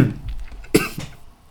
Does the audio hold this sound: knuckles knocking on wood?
no